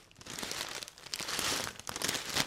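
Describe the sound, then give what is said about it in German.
A bag of muesli is shaken steadily for a couple of seconds, producing a continuous crinkling, rustling rattle with brief surges in intensity, with no talking. “Wer eine Tüte Müsli eine Weile schüttelt, der stellt fest,”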